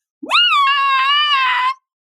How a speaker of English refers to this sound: I do yell a lot. Yes, I do, sure. but it helps release it. And so it's not like I'm screaming nonstop.